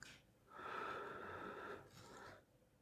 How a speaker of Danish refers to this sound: Træk vejret så dybt du kan. Fyld dine lunger ud og fyld din mave helt ud med din vejrtrækning.